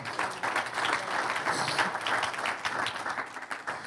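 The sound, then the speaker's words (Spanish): An audience bursts into sustained applause for the Lord, many hands clapping densely and steadily for several seconds at a fairly loud, even level, with no voices standing out. “Un aplauso al Señor.”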